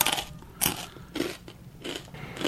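Crunchy chewing sounds repeat in a steady rhythm, about four bursts of crisp crackling bites separated by brief wet mouth noises, fairly quiet with no talking.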